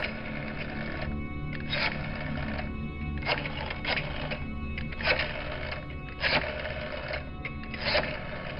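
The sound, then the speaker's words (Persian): A telephone receiver is picked up and a number dialed, then the line rings, heard as a series of short, irregular mechanical bursts spread across several seconds over a steady low hum, with no voices. “گوشی تلفن رو برداشت و شماره گرفت”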